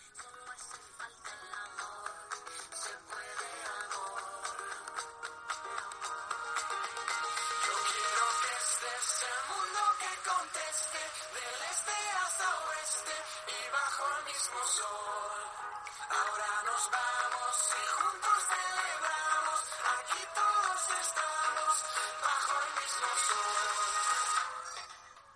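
An upbeat pop song plays steadily for the whole stretch, sounding thin and tinny with little bass, its level rising slightly after the first few seconds. No one talks over it.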